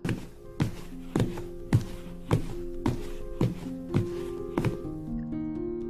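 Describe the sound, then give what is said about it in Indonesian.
Heavy footsteps thud at a steady walking pace toward a bedroom, about ten firm, fairly loud impacts over a few seconds, with sustained musical tones playing underneath. “Karena gak lama kemudian aku ngedenger ada suara langkah kaki yang menuju kamarku.”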